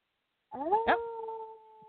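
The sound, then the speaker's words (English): A person imitates a wolf howl with a rising, sustained vocal tone that holds steady for about a second before trailing off, fairly loud with no other sounds around it. “Now you have to howl.”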